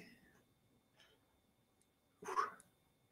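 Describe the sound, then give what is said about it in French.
A short, breathy yawn sound rises up suddenly out of near silence, a single vocal exhale lasting under half a second, with no talking around it. “Et on baille, hein, ça me fait bailler.”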